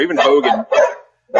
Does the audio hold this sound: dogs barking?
yes